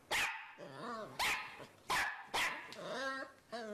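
A small dog barks five times in quick, uneven succession, each sharp, loud bark trailing into a higher, whiny yelp. No one speaks.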